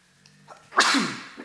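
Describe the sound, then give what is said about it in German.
A single sudden, loud sneeze, with a sharp burst of breathy noise that trails off after a brief intake of breath. “Ui, jetzt habe ich mich niesen.”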